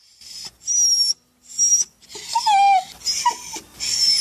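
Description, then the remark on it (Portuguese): A small, thin stray dog abandoned on the street whimpers at doorways in a series of thin, high-pitched whines, some wavering and some rising, separated by short pauses, with a breathy, airy hiss between the cries. “Era vulgar, magro e humilde, e andava pelas portas a ganir como um pobre que pedisse esmola, escreve Maria Helena Spencer.”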